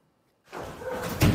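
A door is pushed open after a moment of silence, followed by a sustained rattling, scraping rush of noise that ends in a louder knock or bang, as Chinese police open the door and enter a voice-phishing gang's base in China.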